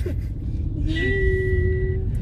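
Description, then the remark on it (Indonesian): A car's low-fuel warning sounds as one steady electronic tone lasting about a second, clear, over the low rumble of the engine inside the cabin, as the car sits in a traffic jam in Ubud. “iya, saya isi bahan bakar bentar lagi. Gimana sih mobil ini cerewet banget sih, kayak ya.”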